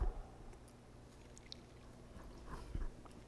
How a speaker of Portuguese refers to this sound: Pensem por um instante, enquanto eu bebo um pouquinho de água.